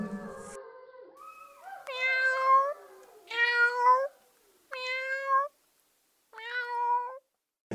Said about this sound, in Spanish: Ya aprendiste la lección. Miau.